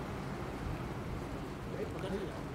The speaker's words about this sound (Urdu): یہ پنکھا بند کر دیں اس کا بھی کچھ شور ہو رہا ہے